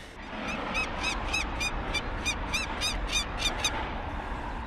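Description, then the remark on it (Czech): A female peregrine falcon, anxious for her young, circles a 160-metre heating-plant chimney and screams a rapid, evenly paced series of about a dozen harsh, high-pitched alarm calls at a person climbing it, loud over steady wind-like background noise. “Přestože jsem ještě nevystoupal až na ochoz s budkou, Samice již má o svá mláďata obavy. Obletuje komín a hlasitě na mě křičí.”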